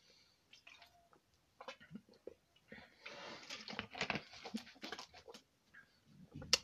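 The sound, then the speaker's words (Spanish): Quiet sipping and swallowing of water, soft wet slurps and gulps with small clicks and a few louder bursts in the middle, and no talking. “De hecho, algo que muy, muy bonito que me pasó, y esto se los voy a contar después de tomar un traguito de agua.”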